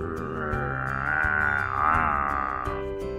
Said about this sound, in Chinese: 就在这时，一阵低吼的吼叫声突然在远处响起。